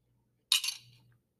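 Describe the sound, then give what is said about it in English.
A coffee cup gives a single bright clink as someone takes a sip of coffee; the clink rings briefly and fades within about half a second, set against near-silence and a faint low hum, with no talking. “We're, we're taking a hard left after I take a sip of coffee.”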